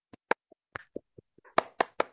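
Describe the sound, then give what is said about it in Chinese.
Hand clapping in an uneven burst of about a dozen sharp claps, starting light and sparse, then turning louder with several strong claps near the end. No voices. “没错，就是一个合体的三轮车。鼓掌。”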